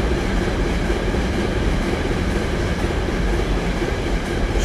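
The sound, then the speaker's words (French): A train rumbles past on rails just behind the town hall at the French-German border, a loud, steady roar of wheels on rails with broad rushing noise that holds for several seconds without pause. No voices are heard. “Je suis désolé, il y a très peu de trains d'habitude.”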